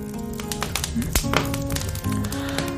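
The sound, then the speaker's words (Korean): A fire lit in a fire-gazing brazier (fire pit) crackles with irregular sharp pops and snaps over a steady low rustle, while faint voices murmur in the background. “이러더니 이번에는 불멍화로에 불을 피워줬습니다.”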